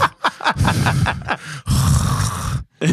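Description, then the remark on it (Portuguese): A voice loudly imitates snoring: a few short rasping snorts, then two long, harsh, rattling drawn-out snores, with another starting right at the end. “se você ronca dessa maneira mesmo, eu tenho dó da sua namorada, cara. Que ronco medonho.”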